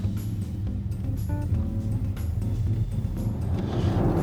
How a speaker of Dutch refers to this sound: We zijn terug in de auto